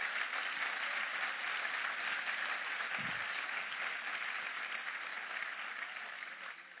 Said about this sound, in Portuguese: Se é para ele, aplauda forte.